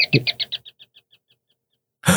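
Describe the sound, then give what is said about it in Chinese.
An electric doorbell gives a rapid run of high, chirping beeps, about a dozen evenly spaced pulses that start loud and fade away over about a second and a half before a voice breaks in. “哎，刚刚是不是有一个电铃的声音？”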